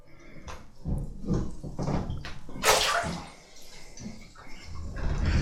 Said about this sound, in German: Ich platsche ein wenig.